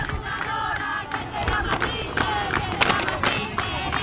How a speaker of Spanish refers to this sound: por ahí la gente que ya le aplaude, la afición que ya le aplaude.